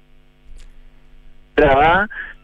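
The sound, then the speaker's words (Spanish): A steady low electrical hum with faint buzzing tones runs through the whole line, heard as interference on a remote connection during a radio programme, broken near the end by a loud, distorted, garbled burst of voice-like sound. “lamentablemente se escucha con una interferencia terrible.”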